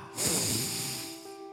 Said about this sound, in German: Ja, dann atme jetzt mal erstmal tief ein.